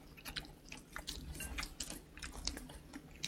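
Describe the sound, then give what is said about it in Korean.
Chewing of soft, sticky food (Chuncheon-style dakgalbi eaten together with sweet potato, rice cake and vegetables), with steady wet mouth sounds and small smacks repeating in an uneven rhythm over about three seconds. No talking. “고구마랑 떡하고 이렇게 같이 먹으니까 음.”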